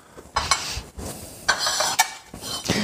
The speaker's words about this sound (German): So, dann teile ich hier mal die Teller aus. Und ich werde jetzt die Ente zerteilen.